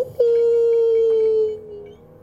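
animal, wolves howling

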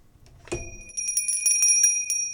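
signal or alarm, bell ringing

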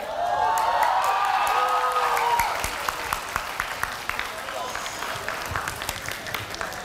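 crowd, applause

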